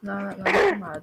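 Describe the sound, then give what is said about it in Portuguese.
A single sharp sneeze bursts out, loud and brief, cutting into a person's speech that continues before and after it. “Saúde.”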